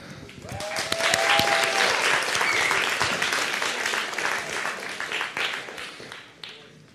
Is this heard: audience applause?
yes